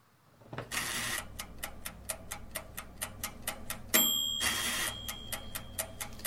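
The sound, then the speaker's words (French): A rhythmic mix of kitchen appliance sounds from ovens and fridges: steady mechanical ticking punctuated by two loud whooshing, whirring bursts and a brief electronic beep tone, fairly loud, with no voices. “écouter un mix de sons d'appareils de cuisine avec fours et frigos,”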